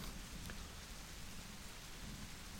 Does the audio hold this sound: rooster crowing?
no